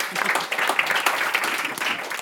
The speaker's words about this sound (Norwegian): Ja, det kan vi gjerne klappe for.